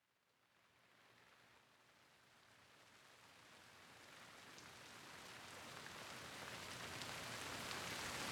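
rain falling

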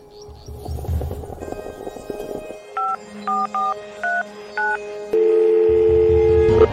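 telephone keypad dialing tones

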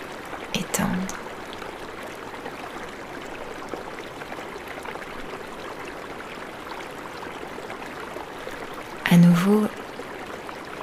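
flowing river water

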